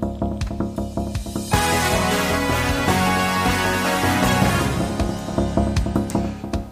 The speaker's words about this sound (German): Nach dem Jingle geht es los.